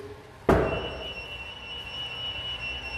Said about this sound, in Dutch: Alarm. Ja, zeker. Dat was in die tijd niet zo. Tja, een alarm.